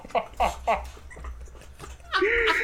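A dog whimpers: three short, whiny yelps come in quick succession, a few quieter noises follow, and a higher, drawn-out whine rises at the end.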